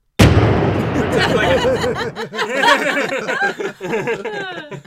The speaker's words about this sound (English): Yeah. fire the canon. Let's do it. I have to find that sound effect.